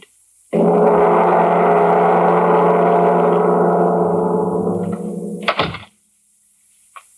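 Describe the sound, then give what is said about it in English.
An elevator plunges down its shaft: a loud, steady mechanical roar and whine lasts about five seconds, then ends abruptly in a sharp crash before silence. “I wish that blasted thing would fall through the basement. Hey, it's falling. It, it fell.”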